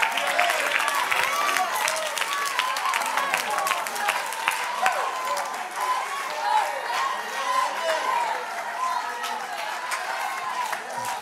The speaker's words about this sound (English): Somebody clap your hands and lift your voice. Hallelujah.